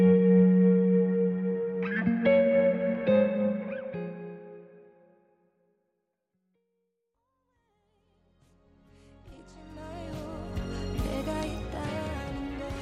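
Sustained, echo-drenched tones swell and hang in a reverberant wash, then fade to near silence before denser, shimmering music rises again with bright, effect-laden layers. No one speaks.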